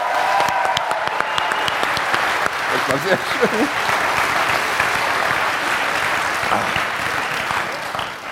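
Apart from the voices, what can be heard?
audience applause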